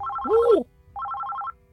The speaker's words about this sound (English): The ringing of your office phone cuts through your concentration and startles you.